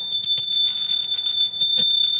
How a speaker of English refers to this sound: There you go. The bell has rung.